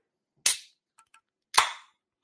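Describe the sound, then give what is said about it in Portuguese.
A beer bottle cap pops off twice, each sharp snap trailing into a brief fizzy hiss, with a couple of faint metallic clicks in between. No voices. “Barulhinho? Só para não, não chacoalha. Escuta aí.”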